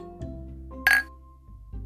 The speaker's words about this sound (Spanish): Pero nos vamos a despedir sin antes hacer el clásico brindis de los caguameros. Así que saludcita